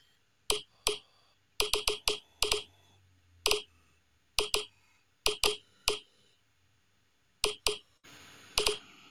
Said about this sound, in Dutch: een audio-weergave van bitcoin